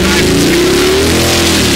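car engine revving

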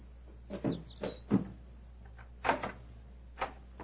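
door being opened

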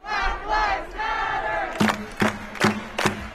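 protest crowd shouting

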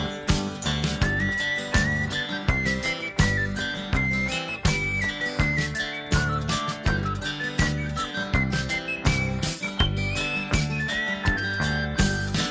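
whistling a tune

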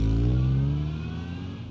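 car accelerating away

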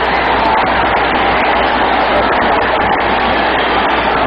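stadium crowd roaring

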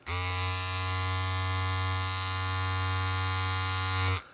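vibrator buzzing

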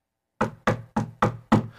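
knocking on a door

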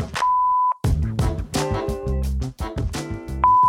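voicemail beep tone

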